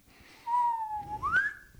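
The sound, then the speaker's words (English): A person whistles a single bird-like call, a steady mid-pitched tone that slides upward into a higher note at the end, imitating a quail. It is clear over faint background noise. “we didn't see anything but we heard we heard this quail and we kept on like whistling and it kept on whistling back.”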